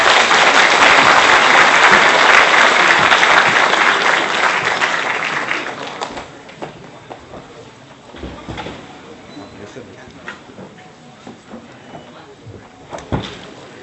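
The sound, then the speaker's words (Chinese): An audience at a lecture at East China University of Science and Technology breaks into loud, dense applause to welcome the lecturer, holding steady for several seconds, then thins out into scattered individual claps that trail off. “下面热烈掌声，有请朱老师为我们解读这一天。”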